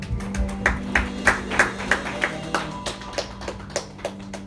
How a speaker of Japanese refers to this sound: 主に、えー、感謝の拍手をさげていきましょ